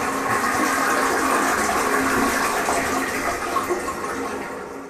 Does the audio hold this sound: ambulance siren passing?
no